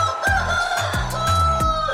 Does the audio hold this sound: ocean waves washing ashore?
no